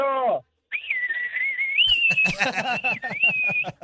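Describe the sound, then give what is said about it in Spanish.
A person lets out a long, shrill derisive whistle as booing aimed at the refereeing of a football semifinal, held steady for about three seconds with slight wavering, after a short lower harmonic sound, with rough, choppy noise joining under the second half. “Bueno, mi abucheo para el arbitraje.”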